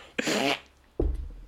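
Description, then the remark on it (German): A short, buzzy raspberry-style fart noise made with the mouth, followed about half a second later by a second lower, rumbling burst, both fairly loud with no speech. “Das zweite Argument ist, man macht halt sein Furzgeräusch.”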